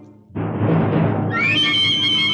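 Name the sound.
horse whinnying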